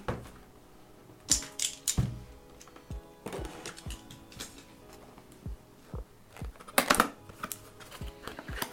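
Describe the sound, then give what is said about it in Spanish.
Quiet handling of a small cardboard product box being opened after its plastic wrap is removed: scattered sharp clicks, taps and brief scraping rustles in irregular bursts, with no one speaking. “quitamos el plastiquito y se queda esta cajita de aquí que viene pues con sus detallitos. Vamos a abrirla.”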